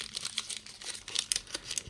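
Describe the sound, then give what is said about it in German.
Continuous crinkling of the paper wrapping around a tin of sardines from Galicia in northwestern Spain, with irregular bursts of crisp rustles and crackles over about two seconds and no voices. “Und diese Sardinen, die wir hier vor uns haben, die wirklich in einer richtig schönen Verpackung sind, da ist draußen so ein Papier drum.”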